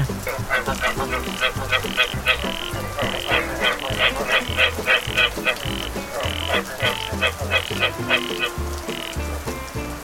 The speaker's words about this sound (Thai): เมื่อเจ้ากบกินอิ่มมีแรงแล้วจากนั้นก็จะเริ่มร้องเพลงท่ามกลางสายฝนค่ะ